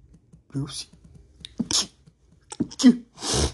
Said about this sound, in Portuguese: Desculpa aí, nossa, mano, eu tô todo fodido. Ai, nossa, essa, nossa, esse espirro doeu muito.